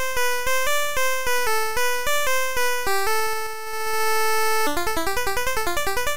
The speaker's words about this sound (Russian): Наглядно схему воспроизведения можно объяснить так. Два канала служили для проигрывания пульсовых волн.